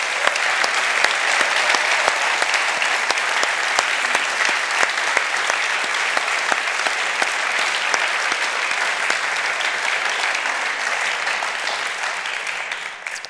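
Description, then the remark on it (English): A large audience claps steadily for about thirteen seconds for three people thanked for their work on a space, a dense, even wash of many hands with scattered sharper claps standing out, fading slightly at the very end. No one speaks. “So would you give those guys a huge round of applause?”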